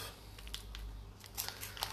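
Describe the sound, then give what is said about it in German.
A 400-gram bag of fondue cheese is cut open: a few quick, crisp snips and crinkles of plastic come in short bursts over a steady low hum, fairly quiet, with no talking. “So, und oh, dann schneide ich das mal auf.”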